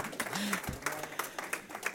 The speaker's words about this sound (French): Wow! Oh, oh. On applaudit.